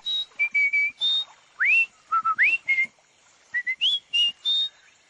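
A cartoon duck, the Whistling Duck, whistles a bright, chirpy tune of short tonal notes, some steady and some sliding upward, in quick bursts with brief pauses, with no talking. The whistle shows which of three rivers to take.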